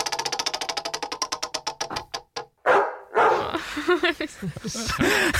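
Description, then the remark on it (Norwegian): A spinning wheel's rapid run of clicks slows to a stop, then a dog barks several times, loud, with a voice mixed in toward the end. “Ja, da skjønte du sikkert hva det betyr. Det blir da hundefôr.”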